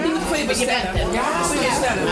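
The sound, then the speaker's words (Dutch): A steady wash of overlapping voices fills the space, many people talking at once at a sociable afternoon gathering of residents in de Drecht, Amsterdam Zuidoost, with no single speaker standing out from the constant murmur. “U hoort de drukte op de achtergrond, beste mensen.”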